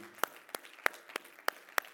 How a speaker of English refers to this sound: Can we give them another hand clap of appreciation? That is not enough. Uh, not enough for all that they do